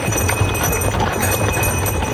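Hooves clip-clop steadily over a constant background rumble, a horse moving at a walking pace for a couple of seconds.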